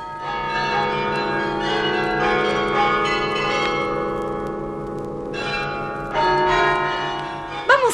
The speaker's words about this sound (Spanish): Y ya se va el año viejo y justo es que lo despidamos con campanas, con muchas campanas.